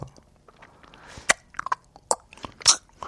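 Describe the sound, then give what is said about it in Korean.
Someone quietly munches a snack with small mouth movements, with a series of soft, irregular crunches and mouth clicks, a few sharper bites standing out against an otherwise quiet background. “이제 오물오물 드셔야죠.”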